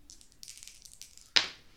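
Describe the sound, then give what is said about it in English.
Dice rattle softly with light, rapid clicks for about a second, then land in one sharp clatter that quickly fades. No one speaks. “Alright, well, I'll roll it, but I have to warn you, I can't add anything to this roll.”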